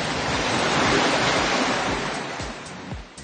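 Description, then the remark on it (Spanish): A dense, steady roar of rushing floodwater from the swollen Cuerpo de Hombre river as it passes through Béjar after heavy rain, loud and continuous with churning low thumps and gusty buffeting, no voices present. “Unas lluvias que nos eh, permitieron ver, por ejemplo, tapas de alcantarillas saltarinas ante la fuerza del caudal del agua o la crecida notable del río Cuerpo de Hombre a su paso por la localidad.”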